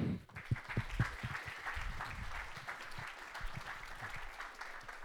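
An audience breaks into sustained applause, a dense wash of many hands clapping at a steady loud level for several seconds, with a few sharper claps standing out near the start.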